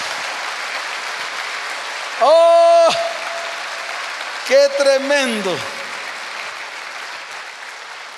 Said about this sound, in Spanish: ¿Cuántos dicen amén? Ahora sí, dele fuerte ese aplauso al Señor. Alábelo con sus palmas.